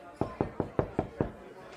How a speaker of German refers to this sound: und ähm, hat gerade auch geklopft. Ne? Ich weiß nicht, ob du Besuch erwartest, aber da steht noch jemand vor der Tür.